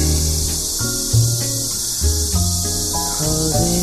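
A steady, shrill buzz of cicadas fills the upper range without pause, layered over soft music with sustained, shifting notes. No one speaks.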